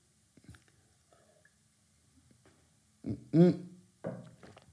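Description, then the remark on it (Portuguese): Someone takes a sip of water: a few faint lip and mouth clicks, then a louder wet gulp with a short throaty sound, and a softer swallow and breath after it. No one speaks. “Só dar aqui um gol d'água.”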